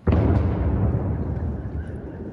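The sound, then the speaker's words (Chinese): An explosion from a Russian daytime air raid on Kyiv, Ukraine: a sudden loud blast that opens into a deep, heavy rumble, rolling on for a couple of seconds and slowly thinning out, with no voices. “抬头就能看到空袭烟雾，爆炸声清晰可闻，空袭警报三度响起，民众快步躲入地铁站。”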